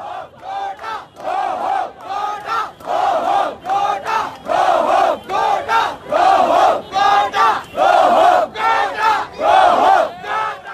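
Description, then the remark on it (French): A large protest crowd of hundreds of thousands in the streets of Sri Lanka shouts and chants in loud, rhythmic bursts, voices rising together in repeated cries with short pauses between them, filling the whole stretch without any single speaker. “Au contraire, ils et elles déferlent dans les rues quotidiennement, désormais par centaines de milliers.”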